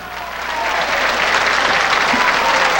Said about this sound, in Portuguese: Vamos aplaudir.